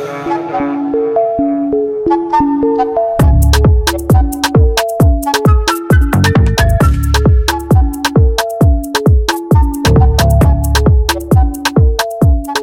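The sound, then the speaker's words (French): A melodic synth line plays alone for a few seconds before heavy, booming kick drums and sharp snares drop in, driving a loud, steady hip-hop beat that continues to the end, a rap song played on Skyrock radio. “sur Skyrock, c'était le son de Metz.”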